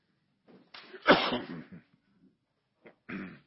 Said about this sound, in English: I sabotaged myself. Uh, I'm coughing because of the smoke I created by all the incense. I'm allergic to incense, and I've lived with this 40 years, but never was I as stupid as tonight. I decided we'd have extra incense.